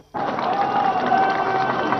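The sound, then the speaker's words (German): A large crowd of people from East and West at the Brandenburg Gate in Berlin cheers and applauds as two young people climb onto the gate, a steady, dense roar that rises abruptly and stays loud throughout, with shouts and whistles rising above the mass of clapping. “Unter dem Beifall der Bevölkerung in Ost und West sind nun zwei Jugendliche auf das Brandenburger Tor hinaufgestiegen.”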